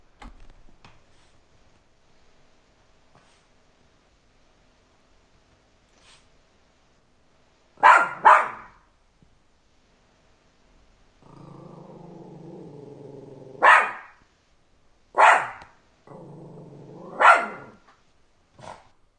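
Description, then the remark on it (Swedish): A bichon frise named Felix, weighing about 3.5 kilos, lets out several sharp, loud barks separated by low rumbling growls, with a quiet stretch before the first bark, reacting to Leatherface on a TV. “Han är en bichon frisé som väger ungefär 3,5 kilo.”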